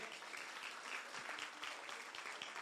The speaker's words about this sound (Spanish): ¿Alguien dice amén? ¿Alguien le puede dar un aplauso al Señor por eso?